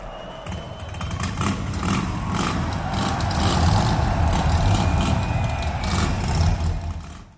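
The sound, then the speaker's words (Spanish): A Harley motorcycle engine rumbles loudly, its deep throaty growl swelling in repeated revs over about seven seconds before dropping away at the end. “la película por excelencia para los amantes de las motocicletas y las rutas en carretera, fusionó los sonidos del motor de las Harleys con el sonido del blues y el rock and roll de los 60.”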